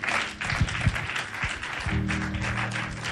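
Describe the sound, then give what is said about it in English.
An audience claps their hands together in a dense, steady wash of applause, with a low sustained musical tone entering partway through underneath the clapping. “Clap your hands for God.”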